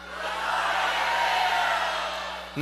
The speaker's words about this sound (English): So when I say good morning, I need y'all to yell it back to me. Good morning, grace.